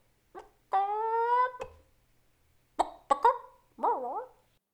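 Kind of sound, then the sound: vocal imitation, person imitating chicken clucking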